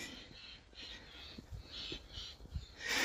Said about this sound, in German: Vielleicht hörst du jetzt gerade die Vögel, die hier langfliegen.